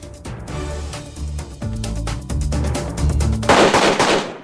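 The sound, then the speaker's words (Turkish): Gunfire echoes through the city of Gao, Mali, during a surprise attack by al-Qaeda militants resisted by Malian soldiers, with sharp cracks and bursts rolling off buildings, followed by a louder, dense rush of noise near the end. “Silah sesleri Mali'nin Gao kentinde yankılanıyor.”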